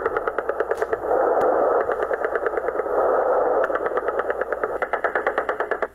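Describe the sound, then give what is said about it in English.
Rapid autocannon fire from inbound helicopters at rifle-armed fighters chatters in fast, evenly spaced bursts, swelling into a dense continuous roar midway before returning to sharp repeated cracks. It is loud, with no voices. “But none of it matters when the autocannons begin to chatter.”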